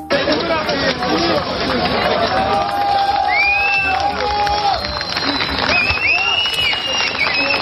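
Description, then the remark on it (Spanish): A crowd breaks into sustained applause and cheering as emergency rescue teams find a survivor in the rubble, steady clapping mixed with excited shouts and overlapping voices that rise and fall throughout. “Por eso, cuando se encontraba un superviviente, los aplausos rompían el silencio.”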